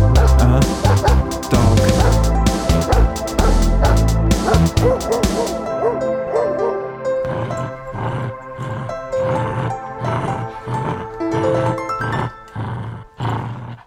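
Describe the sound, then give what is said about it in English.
A dog barks loudly, first in a dense, overlapping flurry of barks and growls, then in a steady series of separate, sharp barks. “Oh man, dog, dog, dog, dog, and dog, and dog, dog, dog, dog, dog.”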